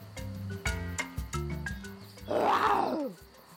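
A lion roars once, a loud, rasping bellow that swells and then drops away, following a short stretch of low, rhythmic harmonic tones like music.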